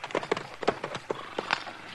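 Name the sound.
horse hooves clip-clopping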